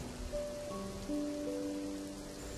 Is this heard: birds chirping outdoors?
no